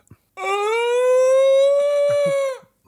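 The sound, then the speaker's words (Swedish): A voice imitates the howl of Chewbacca, the Star Wars Wookiee: one long, loud, harmonically rich cry that rises slightly and holds steady for about two seconds before cutting off, with faint breathy noises afterward. “Men det finns ju en där som bara gör sådana”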